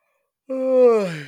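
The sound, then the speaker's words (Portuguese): A single yawn, a voiced, drawn-out exhale with a slowly falling pitch and breathy edge, lasting under a second after a brief silence. “Ah, isto foi um bocejo.”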